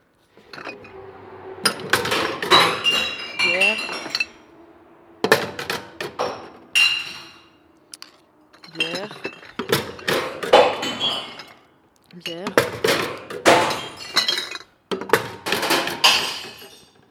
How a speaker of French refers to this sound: C'est intéressant le son d'une benne à verre euh, enterrée. J'en monte le son. On est quand même à Lyon.